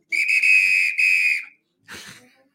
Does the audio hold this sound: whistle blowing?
yes